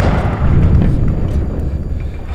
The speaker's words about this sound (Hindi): तभी अर्जुन के कानों में अपने बगल में एक धमाके की आवाज सुनाई दी